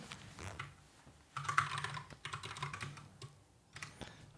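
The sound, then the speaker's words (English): Rapid clicking of keys on a computer keyboard, a steady patter of keystrokes with brief pauses between bursts, with no voices over it. “Joseph typing, not AI making oh, typing.”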